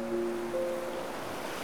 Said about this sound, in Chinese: 自以为是的人儿，面对大海放声大吼时，似乎也难敌潮声的此起彼伏。